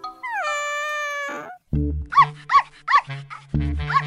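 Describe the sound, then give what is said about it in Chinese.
A long rising cat meow, then a small, dirty stray dog barks: four sharp, high yaps in quick succession over low rumbling bursts, fairly loud, with no talking. “嘿，你瞧那只脏兮兮的小流浪狗，我觉得不错。”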